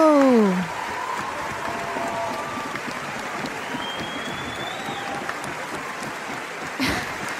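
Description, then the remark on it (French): Sustained audience applause after a Symphonia Pop Orchestra concert, a dense, steady wash of clapping throughout, with a brief falling tone at the start and a few scattered whistles and cheers rising over the crowd. “Je vais laisser les applaudissements.”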